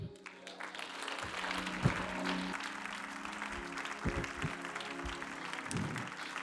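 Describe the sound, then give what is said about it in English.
An audience claps their hands together in a sustained, dense wash of applause, steady and fairly loud, with a low hum of voices and a few sharper thumps underneath. “Let the enemy hear the claps of clap your hands, all ye people.”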